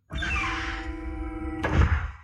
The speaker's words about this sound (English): An inner door in the corridor slid open. They went through it, and the door closed behind them.